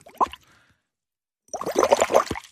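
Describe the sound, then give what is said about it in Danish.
Someone blows bubbles through a straw into a glass of water: one brief plop, a pause, then about a second of rapid, gurgling bubbling with no talking. “Så er det meningen, at vi skal boble i den, eller hvad?”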